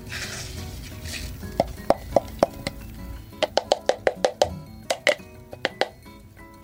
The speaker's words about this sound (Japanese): はい、えっ、ー、と引いた粉をですねドリッパーに移していきます。今日はあのクレバードリッパーで抽出していきます。